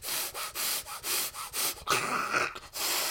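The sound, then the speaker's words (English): A voice imitates heavy breathing through clenched teeth: rapid, rhythmic hissing breaths like a saw stroke, about six in a row, then a longer strained rasp, fairly loud. “there's a lot of there's a lot of true teeth breathing.”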